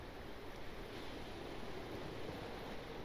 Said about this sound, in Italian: La pioggia sferzava i tetti delle abitazioni. Il mare si accavallava in onde spumose e arrabbiate, infrangendosi sugli scogli.